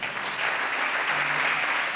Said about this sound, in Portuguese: Dá um aplauso, fique de pé.